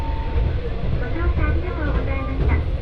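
A train on the Etsumi-Hoku Line in Japan, travelling from Kazuishi toward Fukui, runs steadily along the line, a continuous heavy low rumble with faint whining tones and squeals drifting above it, holding an even loudness throughout.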